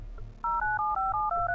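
A phone number being dialed: a quick run of about seven touch-tone beeps, each a steady mid-pitched dual tone following the last without pause, after a brief low hum.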